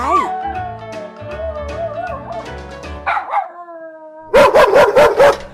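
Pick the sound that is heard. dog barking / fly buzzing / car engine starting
dog barking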